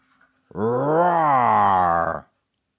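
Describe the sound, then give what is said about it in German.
A person imitates a tiger's roar with one loud, sustained, growling vocal sound lasting under two seconds, deep and rough with a slight rise and fall in pitch, ending abruptly. “Aber Tiergeräusche sind auch sehr angesagt. Also wir stehen momentan auch auf den Tiger,”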